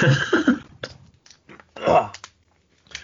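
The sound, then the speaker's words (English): Mouth noises of someone taking a quick sip of water: wet lip smacks and small clicks, then a louder swallowing gulp and a few faint trailing clicks, with no talking. “I'm gonna grab a quick sip of water.”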